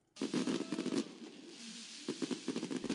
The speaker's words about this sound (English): The Bangkok riverside illuminated by fireworks and a light show to tell you that Thailand is ready and eager for the APEC summit.